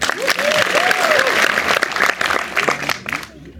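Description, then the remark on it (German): Dense, sustained applause from a full cinema audience at a film screening, welcoming director Hermann Schocher and actress Jutta Hoffmann, a steady crackle of many hands clapping with a few voices rising over it, gradually thinning out toward the end. “Und zweitens, über den Beifall schon am Anfang.”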